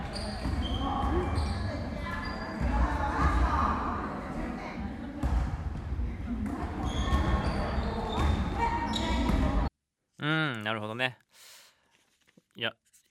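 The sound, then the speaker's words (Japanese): A basketball is dribbled and thumps on a busy gym floor amid squeaks and echoing voices for about ten seconds as a second-year middle-school boy plays basketball, followed by a brief stretch of someone speaking alone. “中2の息子さんがバスケをやってる時の音、良さそう。”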